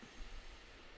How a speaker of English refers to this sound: we can probably safely say that the that the um, oh, there goes there goes our friend the train.